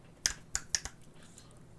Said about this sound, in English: Just finger snaps.